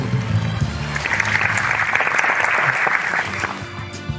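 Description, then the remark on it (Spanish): A burst of applause from a small group, dense steady clapping lasting a few seconds at a fairly loud level, with some voices faintly mixed in at the start and end. “Gracias se merece un aplauso.”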